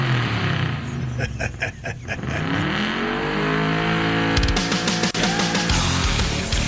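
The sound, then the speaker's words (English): A gasoline car engine revs loudly and continuously, its pitch climbing and falling through several gear-like sweeps, with a person laughing and talking over the roaring motor. “That doesn't sound like an EV, does it?”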